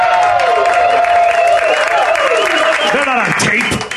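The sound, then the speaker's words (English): The studio audience of WSB's Von Haessler Experience radio show, broadcast live from Sherwood Forest, applauds and cheers loudly and continuously, with whoops and shouted voices rising and falling over a steady wash of clapping throughout. “That studio audience you just heard, that's our studio audience.”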